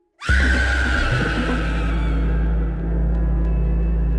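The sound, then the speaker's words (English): A woman lets out a sudden, loud, sustained scream that holds at full intensity for about four seconds, piercing, with no other voices or sounds around it. “The scream is this woman's voice filled with hateful things.”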